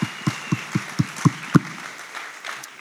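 A church audience at a Vision Sunday service claps in unison, about seven sharp, evenly spaced claps in quick succession, then the clapping breaks off into a soft, diffuse ambience.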